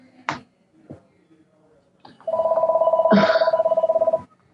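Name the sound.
telephone ringing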